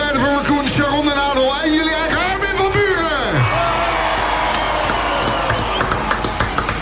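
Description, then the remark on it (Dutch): A loud crowd cheers and whoops, applauding Armin at the 3FM Serious Request Glazen Huis on the Beestenmarkt, with shouting voices rising and falling over a dense wash of applause, continuing steadily throughout. “Ik hoor publiek.”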